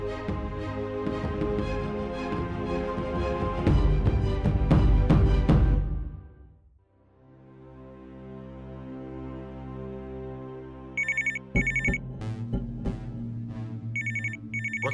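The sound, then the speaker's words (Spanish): A telephone rings in short, repeated electronic bursts near the end, clear, before an answering machine picks up, after a loud, dense musical passage fades into a sustained, humming tonal backdrop. No one speaks. “¿Eso es un contestador?”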